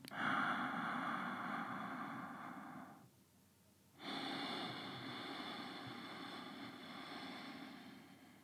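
Two long, steady breaths drawn through a slightly tightened throat in ujjayi style, first with the mouth open and then closed, each a rushing hiss like soft surf, separated by a brief pause, with no talking.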